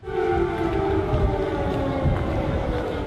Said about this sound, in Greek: ο Biden κατέθεσε στεφάνι υπό τον ήχο του αντιεροπορικού συναγερμού